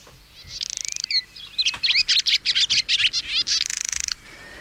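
Two swallows at a home, visiting while people sit outside drinking coffee, twitter in a rapid, busy stream of high chirps and buzzy trills, almost continuous for a few seconds with short rattling bursts. No one speaks.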